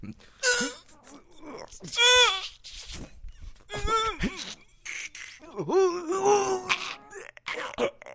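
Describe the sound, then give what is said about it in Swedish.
Strained vocal groans from someone doing sit-ups repeat in several effortful bursts with short pauses between, each groan rising and falling in pitch. “Hör de här situpsen är nog tunga de.”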